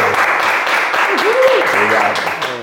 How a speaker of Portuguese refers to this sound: Então uma salva de palmas para Gessé Souza.